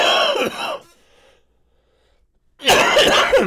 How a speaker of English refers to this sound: I'm sorry for the coughing.